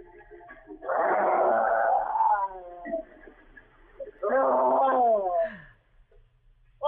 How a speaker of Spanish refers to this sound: pero los leones lo vieron y comenzaron a rugir.